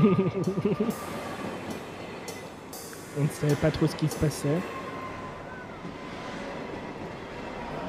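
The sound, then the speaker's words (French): A steady rumble of a train rolling on rails in the distance, continuous throughout, with a person speaking briefly over it near the start and again in the middle. “Un son de train comme ça au loin.”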